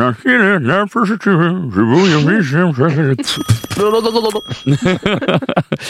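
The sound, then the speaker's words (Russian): An old-style telephone bell rings in a sustained metallic jangle partway through, overlapping lively talking and laughter that dominate the rest of the moment. “У вас там еще и аналоговый телефон там?”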